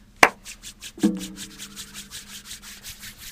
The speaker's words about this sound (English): Quit God spreading the Rona and quit rubbing your hands. God. That's it. Now I'm just going to rub my hands